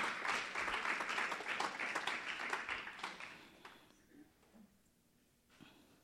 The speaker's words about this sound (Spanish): Denle un aplauso de palmas a Él, porque para eso nos dio las manos, para darle un aplauso de, de palmas. Amén.